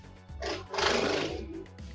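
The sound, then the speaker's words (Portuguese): Loud traffic roar from a busy avenue right outside a home, a rumbling engine noise that swells and surges over a couple of seconds with a harsh, hissing edge, and no one talking. “É, desculpa o barulho, mas infelizmente aqui é complicado. Eu moro bem na avenida e o isolamento aqui está ruim.”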